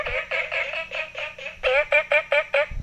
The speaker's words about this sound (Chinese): 哇，在民宿旁边的青蛙叫声好像比较大声，比较吵闹哦。